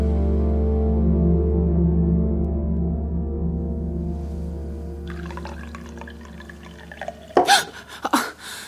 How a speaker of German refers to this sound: Ich hole mir noch ein Glas Wasser und dann probiere ich noch mal mein Glück.